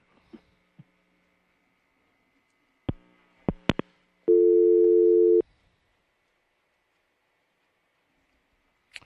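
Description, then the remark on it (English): A few sharp clicks on a phone line as a call drops, then a loud, steady telephone dial tone drones for about a second before cutting off, leaving near silence with faint clicks at the end. “Oh, we're having a little communication problem tonight.”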